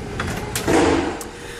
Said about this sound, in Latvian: vērt durvis garāžai ciet